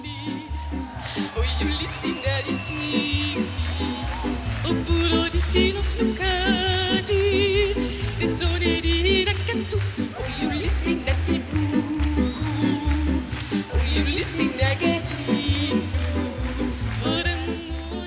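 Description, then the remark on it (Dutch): Belgium's 2008 Eurovision entry, an upbeat pop song sung in a made-up gibberish language, with a lively vocal line over a steady pounding beat and bass, playing loudly and continuously throughout. “Want in België in 2008 hebben ze geprobeerd om dan maar een liedje in een brabbeltaal in te sturen.”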